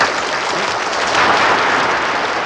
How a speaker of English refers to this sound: And I wish I had an applause button for him because right now would be a great time to sound off some applause.